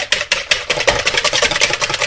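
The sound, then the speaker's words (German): A loud electric mixer whirs steadily, its motor buzzing with a rapid, regular rattling pulse as it beats eggs for pancake batter, before the milk is added. No one speaks over the noise. “Ich empfehle immer, die Eier als erstes zu quirlen, bevor die Flüssigkeit reinkommt, sonst fliegt euch nämlich die Milch um die Ohren.”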